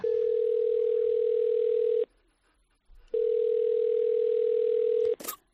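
Two long, steady telephone ringback tones of an outgoing call to a film expert and professor at CEU San Pablo, each about two seconds, separated by a pause, followed by a brief click at the end.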